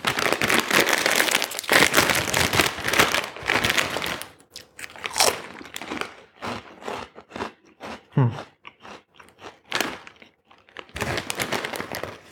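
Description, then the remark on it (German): Loud crunching and chewing of crisp Pombeeren potato snacks, gluten-free and without colouring, from a snack advent calendar: dense crackly bites at first, then slower intermittent chews with brief pauses, and a fresh burst of crunching near the end. A short murmur is heard. “Aua, der Klassiker. Pombeeren. Glutenfrei und ohne Farbstufe.”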